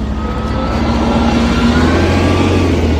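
A heavy bus engine revs, its deep steady rumble rising slowly in pitch as it accelerates, loud and continuous with no voices over it.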